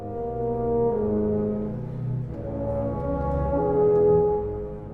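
A tuba plays soft, sustained low notes in a smooth, mellow line, with several held tones flowing into one another. The instrument sounds full, and no one is talking.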